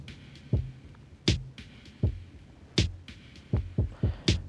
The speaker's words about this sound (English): Let's let's just bring this mood out for now so we can focus on that the sounds of this drum. So I've got two different delays going. I've got the chronoblob and the dirty murals. So let's just listen to the dirty murals really quick.